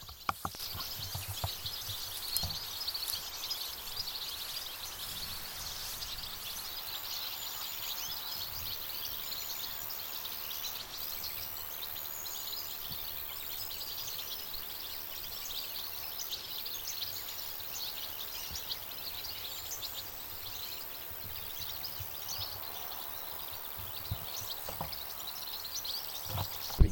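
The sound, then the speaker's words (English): A large flock of goldfinches calls in the field, many high, tinkling twitters overlapping into a steady chatter at moderate volume, with no one talking throughout. “The sound of a flock of finches.”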